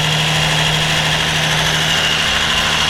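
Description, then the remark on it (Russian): A blender mixing ice cream with banana: a loud, steady motor whir with a constant low hum and a broad hissing grind, unchanging throughout, with no voices. “Это у нас мороженое смешивается с бананом.”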